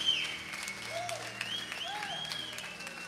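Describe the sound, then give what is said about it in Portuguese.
An audience applauding to glorify God, a steady wash of many hands clapping at once, with faint voices and a few sustained tones rising through the crowd noise. “Aplauda e glorifique a Deus.”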